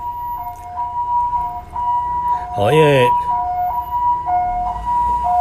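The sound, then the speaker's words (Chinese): An ambulance siren alternates steadily between two high-pitched tones, sounding loud and continuous throughout as the ambulance passes along a main road in a residential area, while a man briefly speaks over it partway through. “在整个一个录音上面，有时候会，呃，因为救护车哈，我们稍微等一下”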